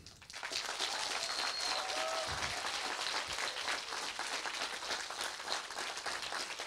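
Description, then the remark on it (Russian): Sustained applause from an audience after a speaker asks for it, dense overlapping claps building quickly and holding steady at a fairly loud level for several seconds, with no clear speech over it. “Дайте, пожалуйста, ваши аплодисменты.”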